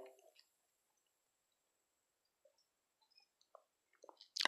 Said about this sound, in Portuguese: Toma mais um golinho de água.